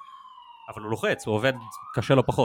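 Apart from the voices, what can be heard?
ambulance siren passing outside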